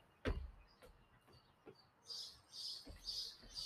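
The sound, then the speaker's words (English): A bird gives a run of four harsh, high chirps in steady rhythm, preceded by a few sharp taps or thumps. No one speaks. “This bird, get out of here, bird. Go away.”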